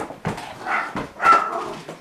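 A dog barks and yips a few times in quick succession, the sounds short and excited with a whiny edge, greeting visitors as they enter a house.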